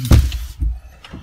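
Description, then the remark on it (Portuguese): A heavy door of an armored car shuts with a deep, solid thunk, followed by a couple of softer low thumps as it settles, fairly loud. “Pesada a porta aí, querido? Peso da porta.”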